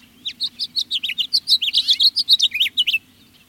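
A house finch sings a rapid, warbling string of bright chirps and twittering notes, clear, with a faint low hum beneath and no voices.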